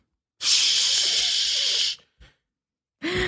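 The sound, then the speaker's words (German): A voice imitates a urine stream hitting a toilet bowl: a long, steady, bright hissing rush of about one and a half seconds, a short breathy trailing puff, then another hiss starting up. “so der mhm. Strahl in diese Schüssel reingeht.”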